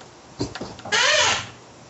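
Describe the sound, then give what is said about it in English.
A chair creaks with a couple of light knocks as it shifts, then gives one drawn-out, wavering, loud squeak, with no one talking. “squeaky chair agrees.”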